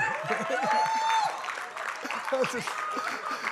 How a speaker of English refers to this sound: Do you know? You're like clapping like this. Do you know for a person who's sitting in this room for the first time or a person who had never been to a church, this is foolish.